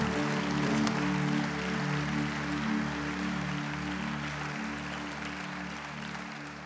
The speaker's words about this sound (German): Und lass uns Ihnen Gott einen Applaus geben.